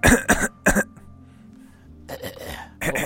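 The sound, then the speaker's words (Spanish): Someone clears their throat at the microphone in a few loud, rough bursts: two quick ones, a short pause, then another cluster after a near-silent gap. “O voy a empezar a carraspear.”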